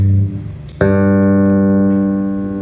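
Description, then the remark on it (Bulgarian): Electric bass guitar notes played through an amplifier with a loudspeaker: a low note fades out, then a sharp pluck brings in a bright, full, harmonically rich tone that rings steadily and slowly fades. No voices. “другото изтънява или удебелява звука на китарата”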